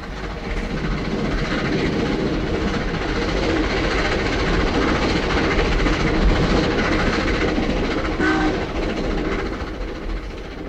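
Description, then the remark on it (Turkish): A train runs steadily along the rails, a continuous loud rumble with dense low-frequency roar and faint rhythmic clatter, holding level for about ten seconds with no voices. “Bir şeyden kaçıyormuş gibi bindik trene.”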